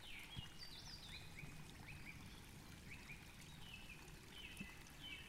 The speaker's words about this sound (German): Und hörst du das sanfte Plätschern des Baches?